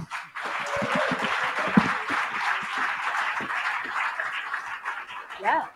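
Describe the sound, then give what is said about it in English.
An audience applauds steadily for a band as they come on for the second half, dense clapping holding at a fairly even loudness for about six seconds, with a brief raised voice or cheer near the end. “So, anyway, uh, a, a big round of applause anyway for the … who are coming on for the second half.”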